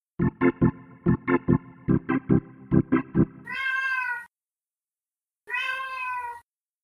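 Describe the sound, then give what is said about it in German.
A 19-year-old cat meows twice, loud, each call drawn out and wavering, after a rapid run of short rhythmic tapping pulses; no one speaks. “Das klingt nach Katze. Wer miaut da im Hintergrund?”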